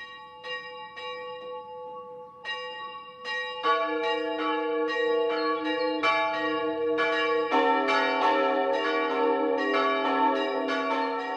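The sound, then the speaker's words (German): Church bells of Kleinheubach in Unterfranken (Lower Franconia) ring the 12 o'clock noon peal, broadcast on Bayern 1: a single bell tolling at first, then more bells joining in until a full, overlapping peal of bright, sustained tones fills the air. No voices. “Das Mittagsläuten kommt heute aus Kleinheubach in Unterfranken.”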